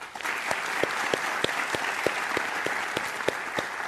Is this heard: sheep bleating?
no